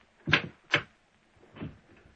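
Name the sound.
desk drawer being opened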